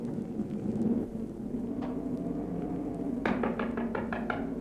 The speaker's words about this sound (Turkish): Rüzgarlı bir geceydi. Yağmur yağmıştı. Tıpkı bu akşamki gibi.